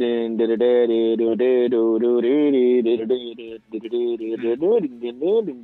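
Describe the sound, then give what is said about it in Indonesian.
An angry rock song plays, thin and band-limited as if through a radio, dominated by a loud, sustained vocal line that swoops and wavers in pitch throughout. “lu bawa ini lagu angry anger tapi lu tahu anger mana yang bisa bikin orang fun buat dengerin”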